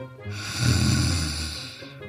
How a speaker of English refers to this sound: They didn't make it that far, though, because they were so drunk that they only made it to a hill. There they rested, unaware of the upcoming night and its phantoms. Soon they were snoring.